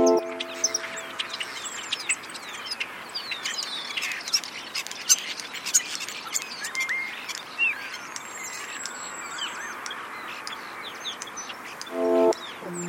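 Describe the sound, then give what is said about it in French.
Several European starlings (Sturnus vulgaris), a very gregarious bird, sing at once, as they often do, in a dense, overlapping chatter of whistles, clicks and rattling chirps. The sound is steady, with a few buzzy calls standing out, and no voices. “Alors, euh, dans cet extrait-là, on entend quelques oiseaux qui chantent euh, simultanément, comme ils le font souvent.”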